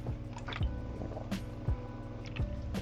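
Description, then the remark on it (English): Someone drinks water, with three deep gulping swallows spaced about a second apart and soft liquid sloshing and clicks in between, no talking. “Water.”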